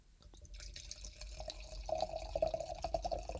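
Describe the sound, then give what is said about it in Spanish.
Sparkling wine from a bottle with a crown cap instead of a cork pours into a wine glass with a steady trickle, building into a bright fizzing and gurgling as the glass fills, no voices present. “Ay, qué bonito suena. Está cayendo. Qué bonito suena.”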